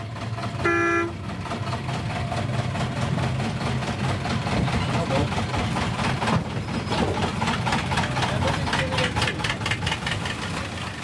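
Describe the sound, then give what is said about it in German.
A museum railway's diesel locomotive on the Mecklenburg-Pommersche Schmalspurbahn narrow-gauge line in Schwichtenberg, near Anklam, rumbles steadily and loudly with a deep, pulsing chug throughout, and a short horn toot sounds right at the start. No one speaks. “Zurzeit fahren die Museumsbahner mit einer Diesellok”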